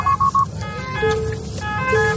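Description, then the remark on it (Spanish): Three quick tonal beeps followed by a wavering, shifting electronic siren of an ambulance trying to get through a traffic jam, heard amid the steady low rumble of idling road traffic. “bueno, tenemos una situación un poco tensa aquí porque hay una ambulancia en medio del atasco que está intentando pasar.”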